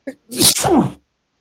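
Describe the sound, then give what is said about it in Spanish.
A single loud sneeze: a quick sharp intake of breath, then a forceful voiced burst that trails off within a second, followed by silence. “Que buscan estornudos en vivo para masturbarse, güey.”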